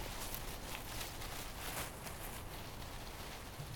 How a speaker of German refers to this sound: Also klingt schon wie Wind, finde ich ein bisschen. Aber in Wirklichkeit ist das, was man da hört, ein Strauß Plastikblumen, den er einfach so vor dem Mikrofon hin und her gewedelt hat.